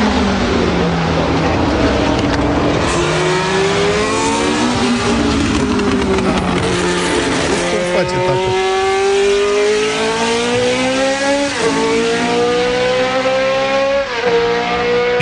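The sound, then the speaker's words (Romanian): A Formula 1 race car engine screams loudly and continuously, its pitch climbing repeatedly with several quick gear shifts, steady with no voices present. “Dar Formula 1 adevărată nu ai? Ia uzi.”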